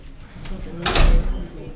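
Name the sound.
door being opened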